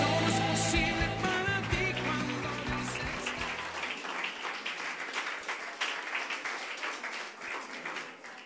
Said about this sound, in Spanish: Dele a él un fuerte aplauso de alabanza.